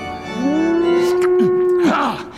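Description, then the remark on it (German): A single long, loud mooing tone from a clogged church organ pipe during practice, like a cow's low, rising, then sustained drawn-out call that drops off abruptly at the end, heard alone. “Mal mühte sie wie eine Kuh, dann quickte sie wie ein Schwein.”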